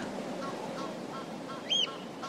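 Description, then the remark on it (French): Three ducks call at a pond: a few short nasal quacks sound over a steady outdoor hiss, with one louder, sharper call standing out near the end. “Quand il les a enlevés, j'étais devant une magnifique mare au canard.”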